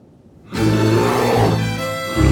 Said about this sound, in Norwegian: Dyret reser seg opp på to ben og brøler til dem mens det fekter med labbene.